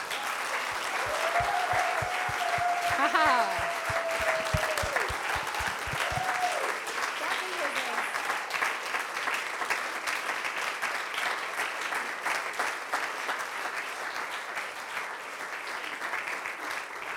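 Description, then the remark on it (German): A crowd applauds steadily for about seventeen seconds, giving applause to God, a dense wash of clapping with a few whoops and cheers rising early on, loud throughout. “Lass uns Gott einen Applaus geben.”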